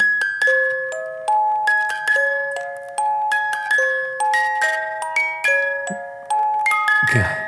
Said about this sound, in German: Es ist einfach Jurassic Park als Glockenspiel. Glockenaufziehspiel. Mit einem kleinen goldenen Dino, der sich von einem Spiegel dreht.